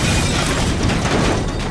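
A loud explosion sound effect roars with a dense, rumbling blast of noise that stays heavy and sustained throughout, with no voices.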